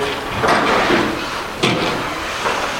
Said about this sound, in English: I'm going to go ahead and shut the door.